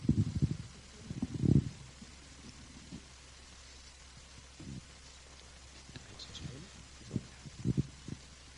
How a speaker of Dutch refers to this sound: Terwijl je er even over nadenkt, neem ik een slokje water.